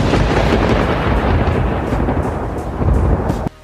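A loud, continuous thunderstorm sound effect with heavy rumbling thunder and steady rain hiss filling the whole span, dense, cutting off abruptly near the end.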